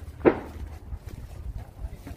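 One heavy, breathy exhale, followed by low wind-like rumble and faint shuffling movement, as if someone is labouring uphill.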